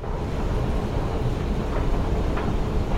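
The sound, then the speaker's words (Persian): A metro train arriving at a station rumbles steadily, heard from the left, a dense, low roar with a faint rattling texture that holds at an even loudness throughout, with no voices. “صدای قطار از چپ به گوش می رسد.”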